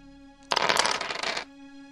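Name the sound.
dice being rolled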